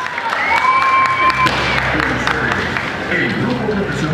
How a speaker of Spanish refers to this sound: Es allí donde grita la concurrencia.